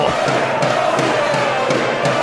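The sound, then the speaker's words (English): A loud, dense stadium crowd at a rugby match between Leeds and Wigan roars and cheers without letup, with steady rhythmic accents pulsing through the noise about every third of a second, like clapping or chanting. “Again, you've got to keep this crowd quiet.”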